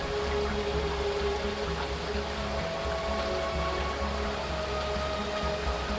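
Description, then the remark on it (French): Steady, dense hiss of rain pouring down with rushing water beneath it, loud and continuous throughout, with a faint low hum underneath and no voices. “plus qu'un simple désagrément saisonnier, la pluie constitue un véritable danger pour les habitants du Boël et plus spécifiquement encore pour les carriers partis à la conquête du schiste rouge.”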